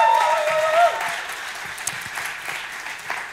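An audience applauds steadily, a dense wash of many hands clapping that starts strong and gradually thins and softens, with a brief whistle-like tone near the start.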